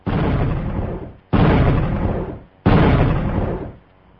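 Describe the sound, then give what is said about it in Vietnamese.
A lit signal firecracker shoots up into the sky and bursts three times in succession, evenly spaced about a second apart, each a sharp boom that rumbles and fades before the next, each louder than the one before. No voices are heard. “Pháo lệnh giọt lên không trung, nổ liên tiếp ba tiếng.”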